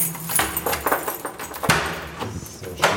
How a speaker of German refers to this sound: Und nun klimpert der Schlüssel. Passt erstmal nicht, sind ja auch viele. Sind ja auch viele Schlüssel, ja.